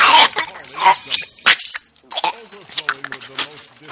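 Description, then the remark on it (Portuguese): Loud crunching and cracking as a person chews up a USB flash drive with some screws and small shards of glass, in several sharp bursts over a few seconds, mixed with grunting vocal sounds. “E eu vou comê-lo agora, com alguns parafusos e lasquitas de vidro.”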